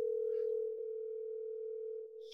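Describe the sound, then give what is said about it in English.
A steady, unbroken telephone dialing tone of an outgoing call to Kyle Crichton, a former producer, hums at one low pitch for a couple of seconds, heard alone, ending with a faint click. “I'm going to call him and let's let's let's let's see if Kyle has anything to say about this.”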